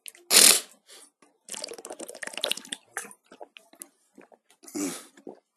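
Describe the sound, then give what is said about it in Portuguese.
Someone drinks water in gulps: a sharp breathy burst, then a run of wet swallowing and slurping sounds, and finally a loud satisfied exhale. No one speaks. “Ah, caralho, água é bom demais.”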